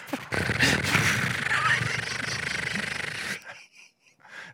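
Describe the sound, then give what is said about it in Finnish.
A voice imitates the rapid flapping rattle of a flapper on a bicycle wheel, like a moped, with a loud, buzzing trill held for about three seconds, then trailing off into a few breathy puffs. “Laita säkin tuollaisen räpättimen pyörään, että se kuulostaa ihan mopolta.”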